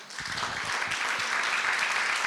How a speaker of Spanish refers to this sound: ¿Quiere darle un aplauso a Jesús por eso?